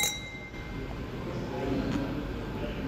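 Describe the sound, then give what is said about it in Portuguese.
A glass of wine and a beer clink in a toast before an interview, a faint bright ring that fades within the first second, set against a steady murmur of room noise and low background chatter. “ele pegou uma taça de vinho, pegou uma cerveja para mim, que os meus chefes não me ouçam, mas nós fizemos primeiro um tintim antes de começar a entrevista.”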